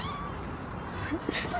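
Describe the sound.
A cat gives a couple of brief, high mews near the end, fairly soft against a steady background hum with some murmuring voices.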